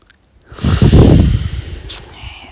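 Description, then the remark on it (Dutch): A deep, slow breath: a loud, airy rush of air swells quickly, then trails off gradually over a couple of seconds. No one speaks. “Rustig uitademen, vertraagt.”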